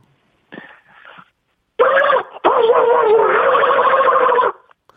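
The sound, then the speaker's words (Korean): A person imitates Donald Duck getting angry: a short squawk, a pause, then a long, loud, raspy quacking sputter with a harsh buzzing texture, cutting off abruptly. “도날드 덕이 화내는 소리라 아, 하겠습니다.”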